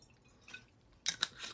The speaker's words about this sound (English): Let me take a sip of this real quick.